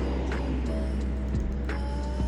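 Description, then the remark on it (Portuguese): Steady traffic rumble of cars passing on a busy avenue, a constant low engine drone and occasional brief swells as cars go by, with no voices. “a Pomo parou e olhou pra avenida antes de sair voando. Será que ela pensou, tipo assim, meu Deus, quanto carro?”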